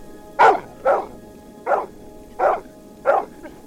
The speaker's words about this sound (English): A large mass loomed up presently out of the darkness, and a huge dog rushed out, barking furiously.